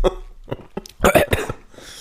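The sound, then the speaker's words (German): A burst of sputtering coughs, several sharp hacks in an uneven rhythm, fairly loud, like someone choking after swallowing a drink the wrong way. “verschluckt”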